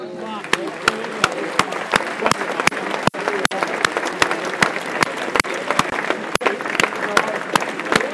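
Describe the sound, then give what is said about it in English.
A large stadium crowd applauds steadily, a dense wash of clapping with sharp individual claps standing out, sustained throughout with a murmur of voices underneath; minutes of applause in tribute to a young Wimbledon fan who recently died, at a Wimbledon match with Millwall in town. “Minutes of applause now for, I believe, for a young Wimbledon fan who's passed away recently.”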